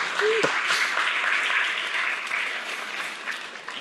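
An audience applauds in a dense, steady wash of clapping that holds for several seconds and eases off slightly toward the end, with a brief whoop near the start.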